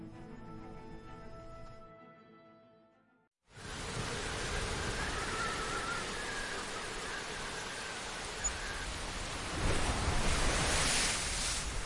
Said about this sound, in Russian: Сильные волны, смешавшиеся с дождем, захлестывали по щиколотку.